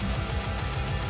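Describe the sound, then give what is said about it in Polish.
Loud, dense heavy metal music from a video game soundtrack plays on its own, with distorted guitars filling the mix and a driving, steady drum beat punching through at a quick pace. “Ci, którzy słuchają heavy metalu, to wiedzą, że to są topowe zespoły heavy metalowe.”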